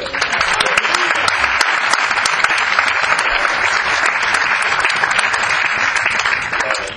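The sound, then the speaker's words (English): A crowd applauds steadily for about seven seconds, a dense, loud wash of many hands clapping at an even level with no voices standing out, trailing off slightly at the very end. “Give him a good and clap of”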